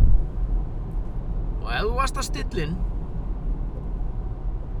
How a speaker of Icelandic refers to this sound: Og að því sögðu er ég að keira hérna fram hjá kerinu.